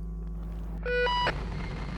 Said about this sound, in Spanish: Una alarma saltó en la escafandra de Beri Marlan,